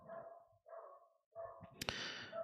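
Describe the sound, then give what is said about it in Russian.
A dog let loose in a village runs about and barks three times in quick succession, each bark drawn out and tonal, followed by a sharp thud or impact with lingering noise afterward. No one speaks. “Ну все, уже завязывай гавкать.”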